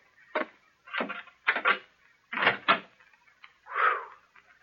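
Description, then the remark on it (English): A wooden door being opened, heard as a string of five or six dry, rattling creaks and knocks, ending in a softer drawn-out squeak. No one speaks. “Uh, this is the door, I think.”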